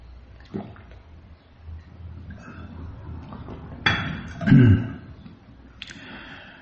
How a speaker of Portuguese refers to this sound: Deixa eu tomar água aqui.